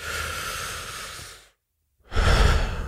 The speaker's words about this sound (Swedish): Däremot så tycker jag att den bästa effekten som jag får, det är när det egentligen är väldigt djup och lite långsammare andning. Man verkligen drar in